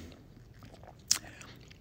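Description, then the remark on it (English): A single quick, wet sip from a drink, a short hissy slurp, set against a quiet, low room murmur. “We're going to drink on the jump here, kids.”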